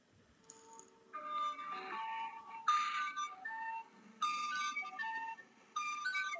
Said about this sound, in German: das ist jetzt nochmal mein Song in schneller